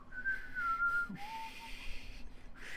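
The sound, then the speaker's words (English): A person whistles a short, wavering tune of a few sustained notes, fairly clear, with a soft background hiss and no talking. “what is the whistling on the Taco Boys podcast?”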